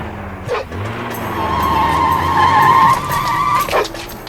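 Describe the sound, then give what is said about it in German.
A car engine revs up and tires squeal in a long, high-pitched screech as a man who has jumped into the car drives away at speed, with a steady low motor rumble underneath. “Und jetzt, jetzt fährt er davon.”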